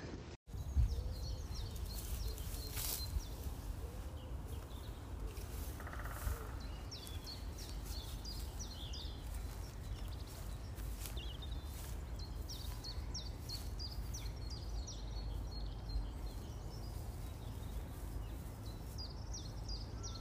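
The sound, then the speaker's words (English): A woodpecker calls outdoors, a series of short, high chirping notes repeating in bursts over a steady low rumble of wind and ambient noise, with no one speaking. “let me send you that woodpecker sound now.”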